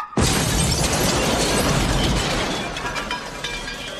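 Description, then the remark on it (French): A car blown up with plastic explosive explodes with a sudden, loud blast, followed by a sustained crackling roar of shattering debris that slowly eases off over several seconds, with no voices. “Ils ont plastiqué ma caisse”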